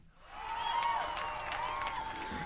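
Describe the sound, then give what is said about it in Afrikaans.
A crowd at a zoo cheers and claps for Gus in a steady, sustained roar, with excited voices rising above the noise of the applause throughout. “Die skare juig hom toe.”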